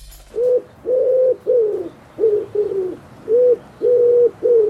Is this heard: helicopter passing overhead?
no